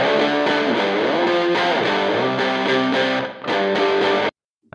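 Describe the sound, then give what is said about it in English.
A song plays loudly, a dense, distorted wash of music with gliding melodic lines and steady harmonics, running for about four seconds before cutting off abruptly into silence. “Oh, you probably you didn't get to hear the song, did you? No, I didn't. Okay, I'll play it now.”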